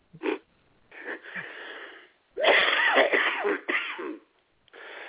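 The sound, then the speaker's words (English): Several harsh, breathy coughing bursts, some short and others drawn out and wheezy, separated by brief pauses, with no talking. “Well, of course, if you did, if you did blow them out, then you'd have to just sit down on the couch and cough for thirty minutes.”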